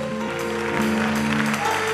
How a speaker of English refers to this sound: Come on, clap your hands for the Lord.